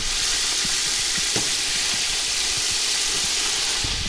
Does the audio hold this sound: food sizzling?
yes